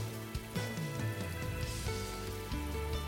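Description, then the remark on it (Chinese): Cold autumn rain, a light drizzle after a night-long storm, patters in a steady, even hiss throughout, mixed with soft sustained musical tones that shift pitch a few times. There are no voices. “在回荡在寂静房间里的雨声和窗外射进来的微光里，我从浅睡中醒来”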